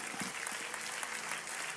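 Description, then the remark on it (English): A crowd claps their hands to the Lord in praise, a dense, steady wash of applause, many overlapping claps at a moderate, sustained level with no voices standing out. “Clap your hands to the Lord, give Him praise tonight.”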